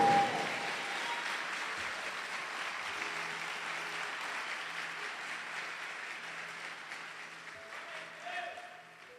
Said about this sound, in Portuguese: Se alguém diz isso é comigo, aplauda o Senhor e diga amém, por favor.